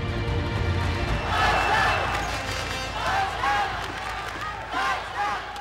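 A packed indoor arena in Wiesbaden roars with spectators shouting and cheering on twin players, a dense continuous wall of crowd noise with rising swells of excited yells, with no talk heard above it.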